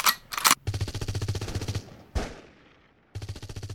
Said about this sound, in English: Hold your fire, everyone. Those are conventional weapons. These guys were using laser weapons. It sounds like a lot of conventional weapon fire. Sounds like it's over.